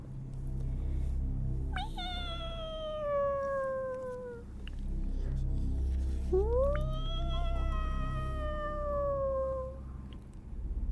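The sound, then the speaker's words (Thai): A cat lets out two long, drawn-out yowls, the first sliding downward, the second rising then sagging slowly, against a steady low background rumble. “เพราะว่าได้ยินเสียงแมวร้องขึ้นมาอีกครั้งหนึ่งคราวนี้ทิดอุ่นคว้าไม้ที่อยู่ข้างบันไดมาถือไว้ ตั้งใจจะฟาดให้ตายคามือ แล้วก็หันมาทางเสียงที่ได้ยินแมวร้อง”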